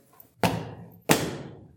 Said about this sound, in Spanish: Algunos, algunos hicieron esto, mira. Cogieron su silla y hicieron así.